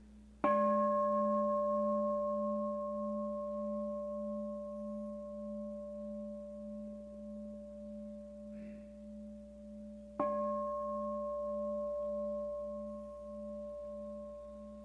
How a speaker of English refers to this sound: Please stay with your breathing as you hear the sound of the bell. Stay with the sound until there's nothing more to hear.